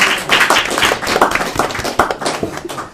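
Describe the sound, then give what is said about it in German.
An audience applauds, a dense, steady patter of many hands clapping for about three seconds at a fairly even loudness, with a few sharper claps standing out. “bitte Deutsch Applaus, Deutsch.”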